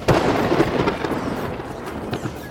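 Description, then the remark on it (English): A sharp thunder crack from a lightning strike bursts out loud, then rolls into a dense, crackling rumble that slowly fades over a couple of seconds, with no voices. “All that goopy gloop formed Lake Fizzy in the giant cavern, and then something mysterious happened underground lightning struck.”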